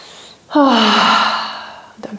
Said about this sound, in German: Wow, krass, ich kann atmen. Yeah, ich kann atmen. Boah, jetzt muss ich tief atmen.